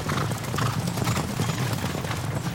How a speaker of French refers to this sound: Le son d'une cavalcade commençait à s'approcher. Toutes les licornes effrayées par les feux allaient se jeter dans le piège.